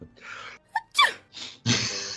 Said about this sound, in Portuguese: Os caras vão espirrar.